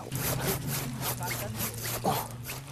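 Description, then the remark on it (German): A hand saw rasps quickly through the trunk of a Nordmann fir in a steady run of scratchy back-and-forth strokes as the tree is sawn down, with a low hum lingering in the background. “Mit der mitgebrachten Handsäge wird der Baum abgesägt.”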